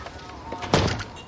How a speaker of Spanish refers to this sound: Cierra la puerta.